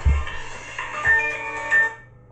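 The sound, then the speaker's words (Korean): A mobile phone ringtone interrupts a broadcast, playing in short repeating bursts of bright, tonal notes with a melodic pattern, clear, with no talking over it. “방송 사고 나서 죄송합니다.”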